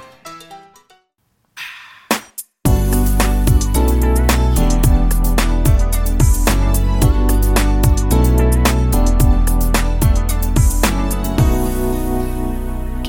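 After a couple of seconds of near silence with faint soft sounds, lush orchestral instrumental music starts up loud and full, with sustained harmonies over a steady, driving beat.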